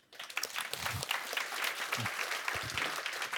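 A room full of people claps steadily, a dense, sustained wash of applause that starts abruptly and continues evenly throughout, moderately loud.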